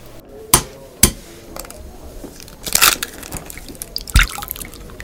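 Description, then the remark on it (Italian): Eggs are cracked for a recipe, after the coffee is made, to separate the whites from the yolks: two sharp, loud taps, then a crackly burst of breaking shell and a few softer clicks and wet drips, with one more sharp knock near the end. No one speaks. “Una volta fatto il caffè, rompiamo le uova.”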